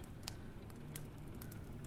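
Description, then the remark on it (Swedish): A handful of sharp, irregular clicks, like teeth chattering, sound quietly over a low, rumbling background, with no one speaking. “Och det där klickljudet. Det låter som tänder.”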